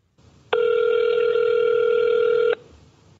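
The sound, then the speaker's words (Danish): A single long telephone ringing tone, a steady electronic buzz lasting about two seconds, clear over a faint background hiss, with no talking, as a call is placed to Danish entertainer Linda P. “I dag ringer jeg til Linda P. for at høre om hendes erfaringer fra øh, livet i underholdningsbranchen, og det, det har givet hende på den privatøkonomiske front.”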